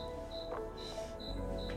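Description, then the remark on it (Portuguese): A cricket chirps in a steady, repeating rhythm of short high trills, fairly faint against a low background hum, with no voices present. “O grilo tá aqui comigo, hein? Ó o grilo cantando.”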